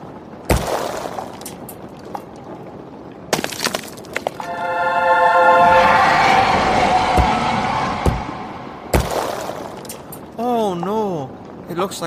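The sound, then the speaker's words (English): Several sharp crashes and smashing impacts ring out, spaced apart, as an idol is dropped, stomped on and smashed, with a wavering, rising tone swelling in the middle and a warbling, siren-like wail near the end. “dropped it, then stomped on it, then exercised the remains and smashed it some more.”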